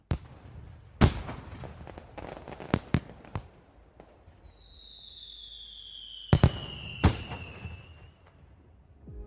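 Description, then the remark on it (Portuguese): Fireworks burst in scattered sharp bangs, a few in quick pairs, with a thin whistling streak trailing across the middle, over a low outdoor rumble and no talking. “O fugatório continua, aparecendo de vez em quando.”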